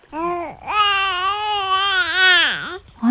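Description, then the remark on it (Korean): A baby lying in a box floating on a river cries loudly: a short opening whimper, then one long, strained wail that wavers and dips before breaking off, with no talking. “어머, 공주마마, 이 상자 안에 아기가 담겨 있습니다.”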